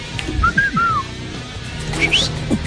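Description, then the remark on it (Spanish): A person whistles a few short swooping notes, then a pair of quick higher rising chirps, fairly clear against a low, steady background hum with no talking. “no te digo que siga silbando”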